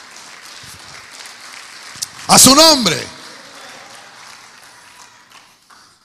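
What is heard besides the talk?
audience clapping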